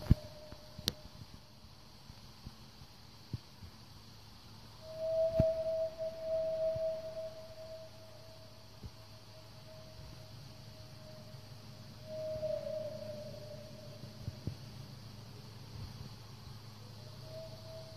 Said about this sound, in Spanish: Parecía como una ballena, ¿cierto? Sí, era como una uh, Era como, una, ballena, así como muy.